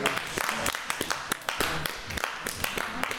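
A small group claps steadily, sharp overlapping hand claps forming a dense, continuous patter of applause at close range, with a voice briefly audible underneath.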